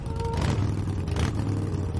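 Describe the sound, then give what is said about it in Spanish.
A motorcycle with a sidecar revs loudly, a deep rumbling idle swelling into throaty surges of acceleration over a couple of seconds, with no voices. “Hagrid acelera la moto.”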